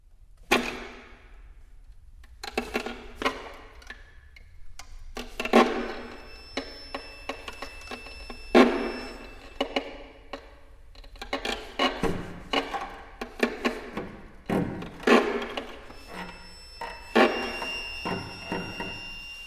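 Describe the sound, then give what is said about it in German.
String quartet bows pressed hard onto the strings, producing gritty creaks and scratchy bursts in an irregular rhythm, with faint high whistling tones at times and no voices. “Mit so großem Druck werden die Bögen hier auf die Seiten gepresst, dass allenfalls ein Knarzen entsteht.”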